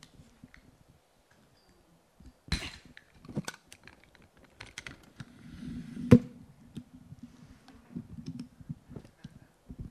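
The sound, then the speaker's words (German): Handling noise as a microphone is adjusted and lowered: scattered clicks, taps and soft rubbing thumps, with a sharper knock midway, then low rustling scrapes. No one speaks. “Ich mache das Mikrofon mal hier kurz runter.”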